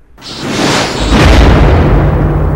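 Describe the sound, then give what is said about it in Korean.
A sudden fiery whoosh as three magic bells are shaken at once, bursting out red flames, black smoke and yellow sand, swells into a loud, sustained roar with a deep rumbling low end, lasting a couple of seconds with no voices. “오공이 방울 세 개를 한데 모아들고 한꺼번에 흔들어 대니 시뻘건 불길과 검은 연기와 누런 모래가 한꺼번에 뿜어나와 수림을 태우고 산을 뒤덮었습니다.”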